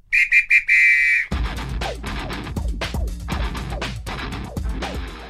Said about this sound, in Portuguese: Tá na prorrogação. Ouviu a apito, vamos pra prorrogação.